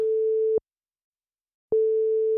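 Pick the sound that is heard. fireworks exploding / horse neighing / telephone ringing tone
telephone ringing tone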